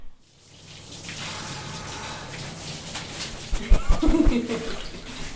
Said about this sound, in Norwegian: Liten dusj nå, så er han klar.